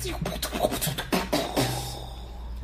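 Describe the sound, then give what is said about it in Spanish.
A voice imitates the sound of the DeLorean travelling through time with a rapid string of breathy, crackling bursts that swell and then trail off into a fading hiss, moderately loud. “Ese sonido es de la nave de, de del DeLorean ah, atravesando por el tiempo.”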